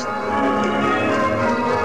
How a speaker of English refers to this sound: people getting together at small country towers, miles from anywhere, just enjoying themselves, just ringing bells.